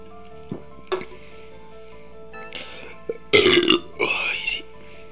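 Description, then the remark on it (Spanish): A few quiet clicks and clinks, then gulping as someone takes a swig of beer, ending in a loud, rough burp-like exhale. “Permítanme un segundo que llevo ya mucho tiempo aquí hablando, leyendo y, y no he dado un traguito a mi cerveza.”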